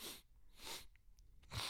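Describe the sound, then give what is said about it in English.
A voice imitates a woman sniffling hard: three sharp, breathy sniffs in quick succession, each a short noisy burst with brief pauses between, quiet, with no talking. “And then all you hear is just her going sniffling, like”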